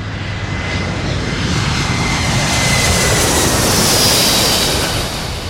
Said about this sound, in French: Le son d'un scandale, bah quel bel enchaînement. Euh, le son d'un scandale, euh, c'est comme un moteur qui vrombit et puis qui va finir par décoller, quoi.